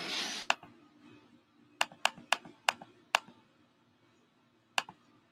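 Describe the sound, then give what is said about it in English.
A handful of sharp computer keyboard clicks, mostly bunched in a quick irregular run with one lone tap after a pause, against a quiet background hum with no talking. “No, I can hear your keyboard clicks.”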